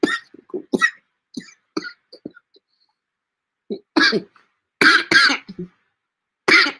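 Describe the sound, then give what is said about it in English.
A fit of coughing: several short throat-clearing bursts at first, then a pause followed by louder, harsher hacking coughs that come in quick pairs, with no talking. “I'm coughing.”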